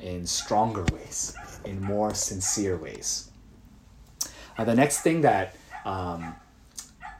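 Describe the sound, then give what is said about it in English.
A dog barks outside on the lawn in short, sharp bursts beneath a man's steady speaking voice, the barks fainter than the talk and scattered irregularly through it. “there's like a dog going crazy outside.”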